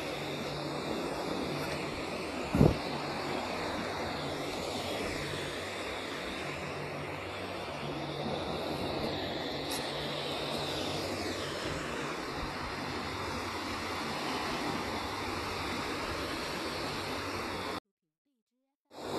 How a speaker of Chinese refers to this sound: 你听到声音了吗？我在一步步走进海边，没错，那是海浪的声音。